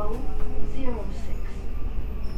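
Inside a JR West 323 series commuter train car running on the Osaka Loop Line outer loop from Osaka toward Tsuruhashi, a steady low rumble fills the space while faint rising and falling whining tones drift over it, suggesting the train is in motion.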